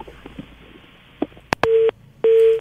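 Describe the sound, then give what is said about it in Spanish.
A phone line hisses faintly, a couple of sharp clicks sound as a live phone call is cut off, then a busy tone starts: two loud, steady beeps with a short gap between them, heard over the line. “Lástima, se, se cortó la, llamada telefónica.”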